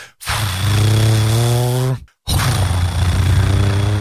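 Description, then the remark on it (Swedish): A voice imitates a car engine with two loud, sustained low droning hums, each lasting nearly two seconds, separated by a brief pause. No speech. “Alltså från motorn.”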